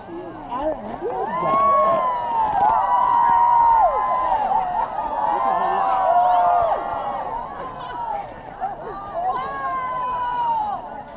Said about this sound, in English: That's the sound of people witnessing a total solar eclipse in Svalbard, Norway in 2015.